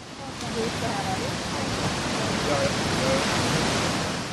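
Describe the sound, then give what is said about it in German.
A powerful, very wide waterfall roars as masses of water plunge down with tremendous force, in a steady, dense wash of rushing water, loud, holding at an even intensity for the whole few seconds without any breaks. “Mit ungeheurer Wucht und gewaltiger Breite stürzen sich die Wassermassen nach unten.”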